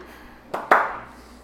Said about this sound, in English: That's what it sounds like. That's what revolution sounds like. Polite clapping. Polite golf.